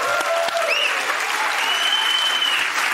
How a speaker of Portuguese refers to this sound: Agora vamos aplaudir a performance futebolista.